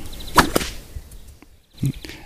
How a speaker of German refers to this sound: wenn du anfängst mit so einer Bullwhip zu üben